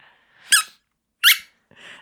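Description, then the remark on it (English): A whippet puppy squeezes a squeaky toy in a few sharp, high-pitched squeaks, two strong bursts followed by a softer one and another starting, fairly loud with no talking. “Are you still squeaking the squeaker? yeah, it's a really good one.”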